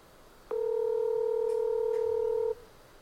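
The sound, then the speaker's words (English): A single two-second ringback tone from a phone call to the Realty One Group office, played on speakerphone held near the microphone, a steady electronic hum that starts abruptly and cuts off, with no talking. “Let's call them.”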